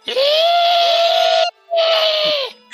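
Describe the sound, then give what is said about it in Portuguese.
A voice imitates the shrill, wailing scream of a green, banshee-like monster: two loud, sustained shrieks, the first long and steady, the second shorter after a brief pause. “Então, ele fica gritando essa porra e ele, ah, minha mente, né?”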